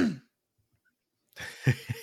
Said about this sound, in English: that COVID cough just won't go away.